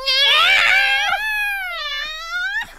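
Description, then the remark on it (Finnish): A loud, panicked screaming cry rings out, one long wavering wail that rises and falls in pitch for nearly three seconds before breaking off, with no talking around it. “Sehän huusi kuin henkensä hädässä.”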